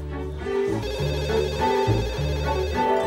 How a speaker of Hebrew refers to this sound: הטלפון מצלצל! מי זה יכול להיות?